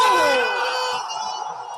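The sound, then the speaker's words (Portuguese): A single voice lets out a long, loud, ecstatic scream celebrating a Boavista football goal, its pitch sliding downward as it holds for nearly two seconds, with no other talk. “E este, e este grito que ouviram, certo que imaginarão quem é que o deu. É um grito de loucura.”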